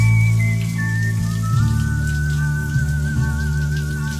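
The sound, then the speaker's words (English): Shower water sprays steadily and continuously for a few seconds, a fairly loud hiss over a low droning hum, with a faint thin whistling tone drifting above it. No one speaks. “Moments of clarity from the shower.”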